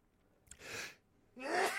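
A person sneezes twice, two sharp breathy bursts in quick succession, the second louder and ending with a bit of voiced strain.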